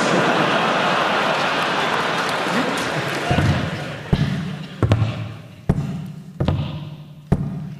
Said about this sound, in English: Ahoy there, lad. That's a clever dolphin you got there. He's making the sound of a man with a wooden leg.